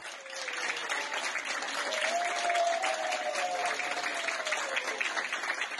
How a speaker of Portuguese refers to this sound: Os aplausos são uma homenagem de médicos e enfermeiros a quem, mesmo infectado pelo coronavírus, lutou pela vida.